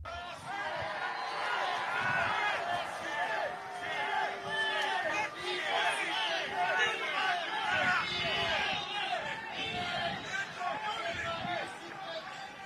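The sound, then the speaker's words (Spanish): A large crowd of Catholics and non-Catholics booing Cardinal Cupid loudly and steadily at the end, with overlapping shouts and voices and a thin layer of scattered clapping underneath, holding at a constant roar throughout. “Hay algunos aplausos, pero mayormente son abucheos.”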